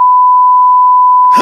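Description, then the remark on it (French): A long, loud censorship beep: one steady pure tone holding unbroken for over a second, with a brief burst of rougher noise creeping in just as it ends. “Bon, alors là, ce que vous venez d'entendre, c'est un long bip, mais, euh, mais vous pouvez vous douter de ce qui s'est passé.”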